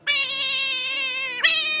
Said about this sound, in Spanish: Pon el gato, pon el gato. Ah, espera, ¿tengo el gato? No tengo el gato.